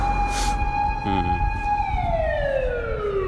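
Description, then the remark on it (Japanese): A siren wails steadily at one high held pitch, then slides downward as the vehicle passes, a Doppler drop over low traffic rumble, with no talking. “本当になんか事故でもあったのかなすいませんちょっとうるさくなっちゃってすいません”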